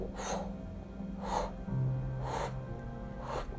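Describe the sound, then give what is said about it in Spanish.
A voice imitates the wings of a large bird flapping as it flies into a room, with four breathy whooshing puffs, evenly spaced about a second apart, steady, with a low hum underneath. “o bajamos los dos y escuchamos cómo entra un pájaro grande, no chiquito, y hace un aleteo.”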